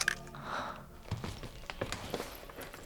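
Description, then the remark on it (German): Slow, careful footsteps of someone cautiously approaching a door to listen, about four soft thuds spaced unevenly over a few seconds, quiet and muffled, with a faint airy hiss at the start and no talking. “Vorsichtig trat Bob näher und lauschte.”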